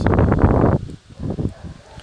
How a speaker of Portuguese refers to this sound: E o vento está fazendo um barulho aqui deixa ele soprar um pouco, ouçam os silfos.